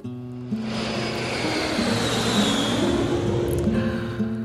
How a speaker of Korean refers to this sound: 공항 근처 옥탑방에 살던 강원은 밤 하늘을 날아다니는 비행기를 보며 이런 생각을 했습니다.